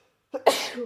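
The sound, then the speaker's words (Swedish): A single sneeze: a short voiced intake builds up, then an explosive, hissy burst follows and trails off, with no talking around it. “Prosit.”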